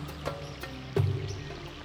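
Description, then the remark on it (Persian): A soft, steady wash of flowing stream water, low and continuous, with a few faint splashes and a brief swell near the middle. No voices. “به این من جاری در کوسر گوش بسپارید که موعد من در پایان این روز به اتمام می رسد.”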